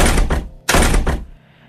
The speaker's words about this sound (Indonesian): Gak lama kayak ada orang yang geder-geder pintu kamar saya. Saya kaget, gak saya jawab juga. Geder-gedernya itu kasar, yang gak kayak ketuk-ketuk biasa. Terus kenceng gitu. Ini langsung digedor lebih kayak kemukul-mukul pintu sambil nendang pintu.